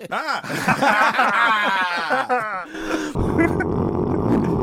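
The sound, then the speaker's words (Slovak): A tractor engine starting: about three seconds of strained, wavering cranking whines that sound almost like a voice imitating it, then a sudden, steady, loud rough rumble as the engine catches and runs. “Opäť som skúšal naštartovať. Konečne sa to podarilo. Môj traktor naštartoval.”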